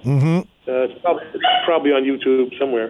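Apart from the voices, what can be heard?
dog barking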